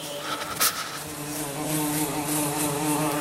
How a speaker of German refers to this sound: Eine Fliege in deinem Zimmer